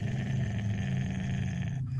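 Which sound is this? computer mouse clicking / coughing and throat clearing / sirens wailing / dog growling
dog growling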